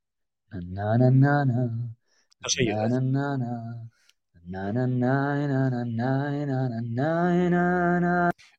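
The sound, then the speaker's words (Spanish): An AI-generated voice hums the tune of Bella Ciao in three sustained phrases separated by short pauses, steady and fairly loud, with no spoken words. “Pero a mí ya lo que me ha vuelto loco, me ha volado la cabeza es hablarle de piezas, digamos, conocidas, por ejemplo, el Belachao, y decirle que nos lo haga tarareando.”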